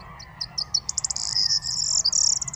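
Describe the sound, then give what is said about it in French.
A corn bunting sings at dawn, 6:30 am on 23 March 2019, on the sea dike in the Camargue: a few separate high ticking notes speed up into a bright, jangling, rattling trill over a low, steady background murmur of flamingos, with no talking. “Réveil d'un Bruant proyer”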